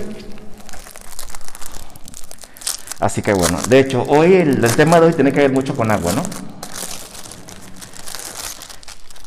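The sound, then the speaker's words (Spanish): A plastic raincoat crinkles and rustles in irregular bursts through the whole stretch as it is put on in a church, with someone speaking over the crackling in the middle. “Entonces, por eso me he traído un chubasquero.”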